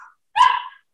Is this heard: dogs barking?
yes